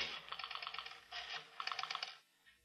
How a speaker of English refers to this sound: Then Ralph dials a number on the phone.